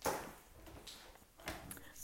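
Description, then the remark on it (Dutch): A door is handled and shut: a sharp knock-like thump at the start, some soft rustling, then a second dull clunk as it closes. No one speaks. “Ik geef hier de deur dicht doen.”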